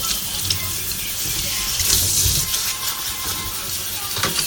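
Steady running tap water splashes into a sink, with faint clinks and rustles of dishes being handled close by. The rushing water stays constant throughout, and no one speaks.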